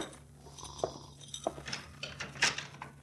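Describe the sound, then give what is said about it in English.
A door out to a corridor is tried: its handle is rattled and a latch clicks a few times, with sharp metallic clinks and soft knocks over a low steady hum, as the unlocked door is eased open. “I'd better try this door out in the corridor.”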